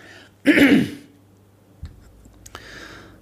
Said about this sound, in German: ähm, auch mit einem Podcast muss man mal husten. Beziehungsweise einen Frosch am Hals.